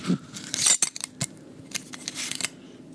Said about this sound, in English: Yeah, it's a mason jar basically. You hear that nice wow, tight. That seal.